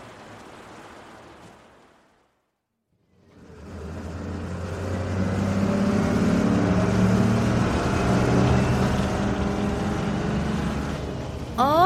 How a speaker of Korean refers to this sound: 지금 버스 타고 요가학원 가는 길.